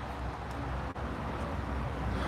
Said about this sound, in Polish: Słyszałeś to? 18-kołowiec ursusowy tutaj przejechał, czyli traktor.